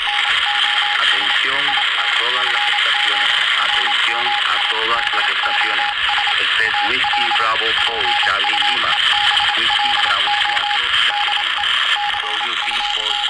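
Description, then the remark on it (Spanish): A keyed Morse code tone beeps in steady dots and dashes throughout, half-buried in loud radio static and warbling, garbled voice-like interference at 7.140 MHz, sent from Cuba during a shutdown of telecommunications. “Ante las interferencias, quienes están comunicándose al mundo debido al cierre de las telecomunicaciones en Cuba, lo hacen con clave Morse.”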